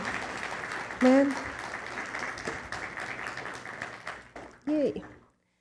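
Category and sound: crowd, audience applause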